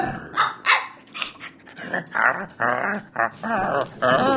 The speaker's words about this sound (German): Pippin, was machst du mit Connys Lackschuh? Oh nein! Lass los! Hundemann! Hundemann! Lass den Schuh los!